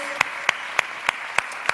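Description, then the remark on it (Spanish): Applause from a church audience for the worship team that sang Christmas carols, heard as six sharp, evenly spaced claps in a steady rhythm over a soft, continuous background hiss, with no voices. “Y de paso, le damos un aplauso al equipo de Alabanza que preparó unas canciones especiales hoy de Navidad, los villancicos.”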